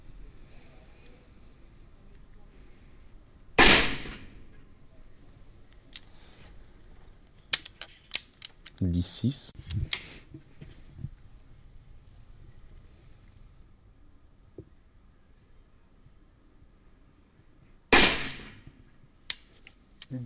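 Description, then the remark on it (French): Two sharp, loud sport-shooting rifle shots, fired for points, ring out about fourteen seconds apart, with quiet mechanical clicks and handling noises between them as the gun is reloaded, against faint outdoor background. “C'est hyper fort comme bruit quand même, ça fait c'est, aigu un peu comme bruit le, tir, ça te fait pas mal aux oreilles.”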